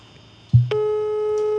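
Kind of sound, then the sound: signal or alarm, telephone busy signal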